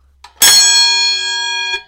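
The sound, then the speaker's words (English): A wrestling ring bell is struck once, giving a loud metallic clang that rings on with a bright, sustained tone before being damped, with faint handling taps just before and after. “It's my ring bell.”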